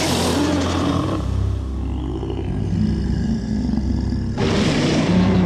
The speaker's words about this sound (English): The beast roars to his family, waking them all.